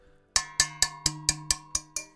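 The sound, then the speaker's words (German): Eight evenly spaced metallic clangs ring out as a metal cooking pot is struck or knocked, each hit bright and sharp with a short ringing decay, fairly loud with no talking. “Ich habe extra hier einen Topf für euch mitgebracht.”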